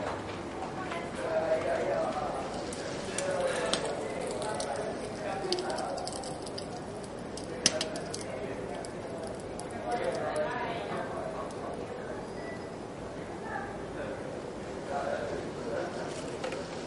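Many hands pat rhythmically on thighs in a soft, steady group patter, a dense flutter of light slaps, lowering in intensity but not speed until the pats no longer sound.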